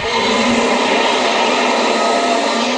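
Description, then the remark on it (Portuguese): A Godzilla roar sound effect: a loud, sustained, rumbling screech that holds steady and harsh for about three seconds, with no voices. “Ai, grito do, do Godzilla.”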